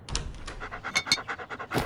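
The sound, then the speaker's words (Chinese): A dog that has dashed over and snatched a steak, panting quickly, a steady run of about nine short, breathy huffs with a hissy, airy edge, rising and falling in an even rhythm. No one speaks. “一条狗突然冲过来，叼走了牛排。”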